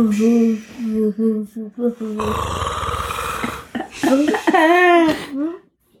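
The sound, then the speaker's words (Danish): A person imitates the snoring of a small sleeping monster, with a long, rough, rattling inhale in the middle framed by exaggerated moaning, sing-song vocal sounds. The performance is loud. “og hver gang, at det snorkede, så kunne de se den store hugtænder her i siden.”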